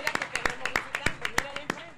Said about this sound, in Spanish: Un aplauso.